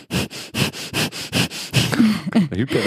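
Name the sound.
imitated heavy loud breathing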